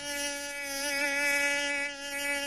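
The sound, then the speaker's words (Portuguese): A mosquito's thin, high-pitched whine hums steadily and close, wavering slightly in pitch as it hovers near the ear, with no voices or other sounds. “Esse inseto voador se chama pernilongo. Ele chupa seu sangue sem você ver e depois fica te incomodando, fazendo um barulho no seu ouvido.”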